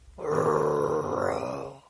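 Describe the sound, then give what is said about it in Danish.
A person growls like a dog to correct a dog while kneeling, holding its head firmly and looking it in the eyes: one sustained, low, rough rumble lasting about a second and a half, fairly loud and steady, with no words spoken. “Du går ned, holder øjenkontakt med din hund, tager rundt om dens hoved, ikke kort eller noget, men, men med et fast greb, kigger den ind i øjnene, og så knurrer du.”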